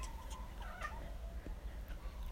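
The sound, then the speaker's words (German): A small, fat kitten meows in thin, high-pitched cries, a few short calls over about two seconds, fairly quiet, with a low background hum and no talking. “Ich wünsche, ich könnte euch dieses kleine fette Baby zeigen.”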